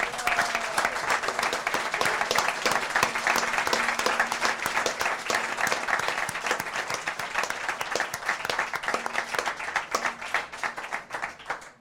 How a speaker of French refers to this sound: Encore une fois, merci à vous. Un tonnerre d'applaudissements pour vous, pour tout le monde.